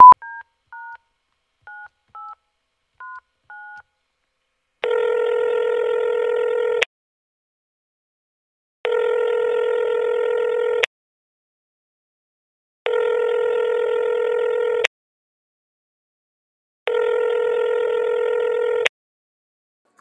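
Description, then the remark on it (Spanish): A quick string of phone keypad dialing beeps, placing a call to test Ringer, is followed by four evenly spaced ringback tones, each lasting about two seconds with pauses between, clear with no voices. “aprovechando para probar esto de Ringer y eso”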